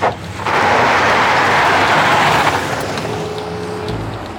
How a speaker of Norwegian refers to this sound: Munkene slenger Robert ned på gulvet i minibussen og freser ut av parkeringsplassen.